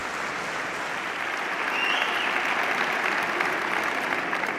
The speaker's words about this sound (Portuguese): de Pedro Nuno Santos como secretário-geral do Partido Socialista neste Congresso do PS. É aplaudido de pé.